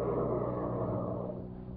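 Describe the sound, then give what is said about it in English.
A car engine rumbles steadily as a woman drives the car down a street, a low droning motor that eases off slightly toward the end as the vehicle slows to a stop. No voices. “Hey, hey, here comes a car cruising down the street.”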